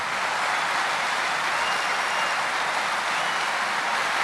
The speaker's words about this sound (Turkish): Ve hep beraber alkışlar mıyız Sayın Başkanımıza?